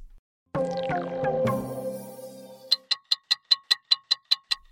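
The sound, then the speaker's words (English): A rising musical swell with a descending whoosh gives way to a fast, steady clock ticking, marking a countdown to the Brisbane 2032 Olympic and Paralympic Games. About a dozen crisp, evenly spaced, fairly loud ticks follow, with no voices. “Hear that? That's the clock counting down to the Brisbane 2032 Olympic and Paralympic Games, which, if you can believe it, are only 10 years away.”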